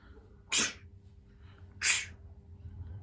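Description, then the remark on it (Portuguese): A voice imitates the way the speaker's mother sneezes: two small, quiet sneezes, each a brief airy burst, about a second apart over a low background hum. No other talking is heard. “Mas a mamã, por exemplo, espirra assim.”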